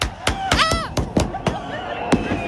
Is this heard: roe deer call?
no